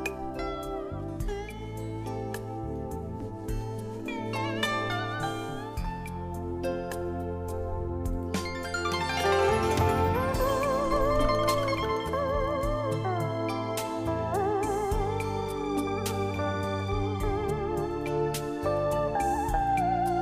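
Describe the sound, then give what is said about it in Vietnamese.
A steady instrumental intro gives way, about halfway through, to a woman singing a Vietnamese song with vibrato over full, continuous accompaniment at a consistently strong level. “xin mời quý vị chúng ta cùng đến với giai điệu âm nhạc ca khúc … với sự thể hiện của ca sĩ …”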